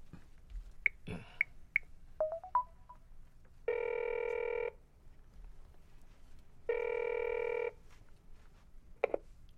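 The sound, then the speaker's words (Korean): A few quick keypad dialing tones beep in short succession, followed by two long, steady ringback tones separated by a pause, clear with no voices. “전화 줘봐.”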